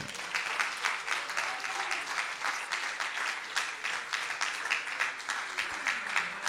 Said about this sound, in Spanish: Den un aplauso fuerte al que vive.